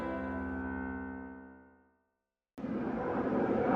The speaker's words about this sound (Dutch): Vandaag sta ik hier midden in Amsterdam Oost in de herrie er vliegt een eh, vliegtuig over, de ambulance komt langs, maar die is stil.